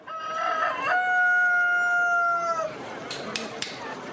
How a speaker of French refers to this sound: À l'heure où les oiseaux chantent, des potrons minets sont venus avec leurs burins.